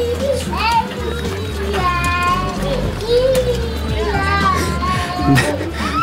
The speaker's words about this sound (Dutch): Ik vind altijd iets heel uh, grappig aan... Uh, Huilende kinderen. Uh, omdat het zo... zij geloven zo hard in de onrechtvaardigheid van dat moment, terwijl de ouders net hebben geïnvesteerd in een rietje op de gokar.